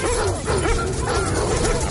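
Several dogs bark and yip in a dense, overlapping chorus, loud, with excited whimpering mixed in and a steady noisy background throughout.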